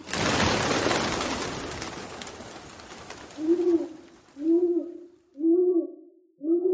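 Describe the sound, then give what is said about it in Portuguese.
A broad rushing noise fades out, then a dove coos four times in a steady rhythm, each call a low, rounded, fairly loud hoot with no voices over it. “É a rola correio!”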